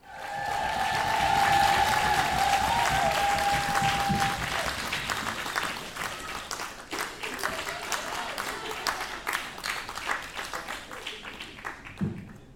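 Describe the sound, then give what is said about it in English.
A crowd applauds warmly, a dense wash of many hands clapping that swells early, then gradually thins and fades out over about twelve seconds, with a brief whistle near the start. “The story I'm about to tell you deserves absolutely no applause whatsoever.”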